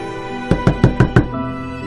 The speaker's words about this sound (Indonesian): Tapi tidak lama ada yang mengetuk pintu kamar saya.